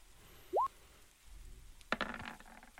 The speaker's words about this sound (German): Genau, 2W6 äh, darfst du noch würfeln und die bessere darfst du benutzen, den besseren. Äh, 2W20, Entschuldigung.